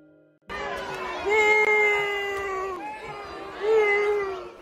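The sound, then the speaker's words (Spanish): A crowd at the Chichen Itza archaeological zone in Yucatán, Mexico, shouts, jeers and insults a female tourist who climbed the pyramid of Kukulcán as she reaches the ground. Drawn-out, wavering yells swell and dip over several seconds amid a dense wash of overlapping voices. “En cuanto tocó el suelo, le empezaron a gritar de todo, la insultaron, le jalaban el pelo, güey.”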